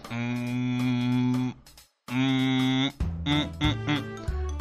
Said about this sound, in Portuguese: Pareceu um boi mugindo, né?